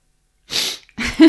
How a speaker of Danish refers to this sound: Lige snøft.